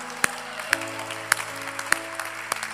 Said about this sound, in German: Lasst uns der Person einen fetten Applaus geben.